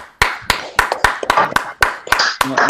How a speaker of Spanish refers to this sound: Un aplauso, un aplauso.